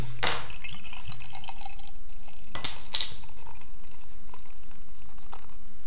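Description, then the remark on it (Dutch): A winter beer is poured into a glass, a short gush of liquid settling into a soft fizz, followed by two bright glassy clinks. No one speaks. “Dus daarom het natje van vandaag een winterbiertje van de lekkere. dus laten we die openmaken.”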